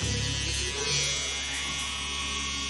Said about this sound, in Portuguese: Ah, o, o barbeador do meu pai? Ele tá possuído!